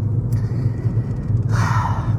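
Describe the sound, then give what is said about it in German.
Steady low rumble inside a moving car with no music playing, a continuous engine and road drone filling the cabin, with a brief brighter hiss of wind or tire noise rising near the end. “Ja, ich bin, wie ihr hört, wieder im Auto unterwegs und auch, wie gewünscht, ohne Musik im Hintergrund.”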